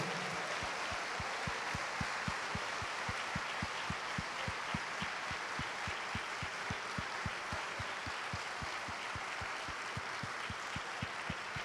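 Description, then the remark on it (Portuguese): A large audience at a church service applauds the Lord steadily, a dense wash of clapping with a regular rhythmic beat running through it, sustained and fairly loud for several seconds with no talking. “Aplauda ao Senhor.”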